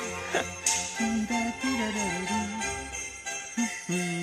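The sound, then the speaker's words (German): A large orchestra plays steadily, with bright jingling from five tuned sets of sleigh bells shimmering on top of the sustained strings and brass, loud throughout; the scoring also includes two players with courier whips. The piece was composed for a carnival parade. “reich besetztes Orchester, fünf abgestimmte Schlittengeläute, zwei Personen mit Kurierpeitschen.”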